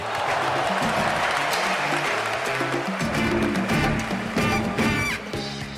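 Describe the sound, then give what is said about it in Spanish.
A large stadium crowd applauds and cheers steadily as Puerto Rico scores a basket in a basketball game against the Dream Team, a dense wash of clapping and voices filling the space, with music-like tones running underneath. “mirando el juego te das cuenta de que la gente en el estadio poco a poco empieza a aplaudir cuando Puerto Rico encesta.”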